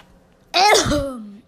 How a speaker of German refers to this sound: Dieses, dieser schöne Huster.